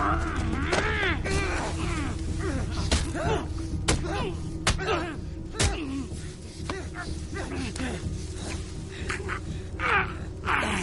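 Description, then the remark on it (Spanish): Punches land in a fistfight between a father and his son, a series of sharp, irregular thuds and smacks mixed with strained grunts and raised voices. “se pelean a puñetazos.”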